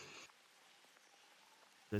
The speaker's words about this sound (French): C'est vrai qu'il pleut. Il pleut encore. Il pleut moins que hier soir quand vous avez dû rentrer à la taverne, il pleut.